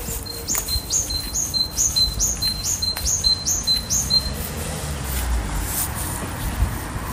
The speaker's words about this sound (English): So that's the great tit in Marino, Niall Hatch. I always like to call that the bicycle pump song because that's what it reminds me of um, the squeaky bicycle pump. And it is one of the easiest bird songs to, to learn.